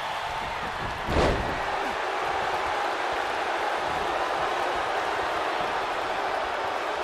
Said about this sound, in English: Choke slams Goldberg over the top rope. Wow. Holy smokes!